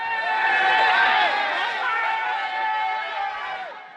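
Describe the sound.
A dense crowd of many voices chatters and shouts at once at the fishing-out of the town stream (Stadtbach) about 50 years ago, a steady loud babble with higher children's cries rising above it throughout.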